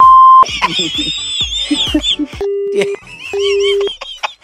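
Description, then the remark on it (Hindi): A telephone busy tone sounds after a call drops: two steady, loud beeps, each about half a second, with a short gap between, following a burst of garbled, chattering voice-like sounds. “phone cut गया भाई साहब इतना भड़क क्यों रहे हो”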